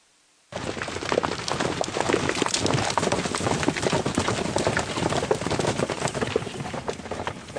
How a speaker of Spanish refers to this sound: La movilización de estos tres millones de caballos hace que la, una horda mongola sea una cosa absolutamente increíble porque se oye desde lejos.